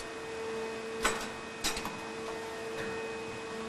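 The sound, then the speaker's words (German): An injection molding machine, test-running a mold for the top part of a plastic lid, hums steadily with a tonal drone, broken by two sharp mechanical clacks about half a second apart and a fainter knock later, with no voices. “fehlt nur noch der Test an der Spritzgussmaschine.”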